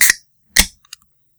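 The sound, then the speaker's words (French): A Molson Export beer being opened: two sharp, loud pops about half a second apart, followed by a few faint small clicks and rattles, with no voices. “Non, j'allais oh, pas voter ou péter, j'allais juste ouvrir ma bière.”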